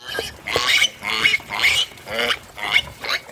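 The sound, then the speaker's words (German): A pig grunts and snorts repeatedly in quick, uneven bursts, about five or six calls with short gaps between them, with no talking. “Und diese Woche ist das Infotier das Schwein.”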